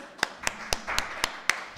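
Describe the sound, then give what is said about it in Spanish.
Sparse, thin applause from an audience holding glasses of wine, welcoming a guest: a handful of sharp claps at a steady, even pace, about four per second, moderately loud, with no talking over them. “Sí, lo del vino siempre tiene la dificultad para el aplaudir.”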